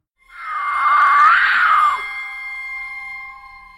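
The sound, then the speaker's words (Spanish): A single loud, wavering scream-like howl from a wild cat a few metres away, rising and bending in pitch for about two seconds before trailing off into a thinner, fading tone, with no talking. “Estaba a punto de regresar cuando escuchó otro alarido, pero esta vez a tan solo unos metros de él.”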